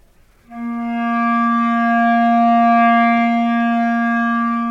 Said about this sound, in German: Sie versucht es mit dem Ton C.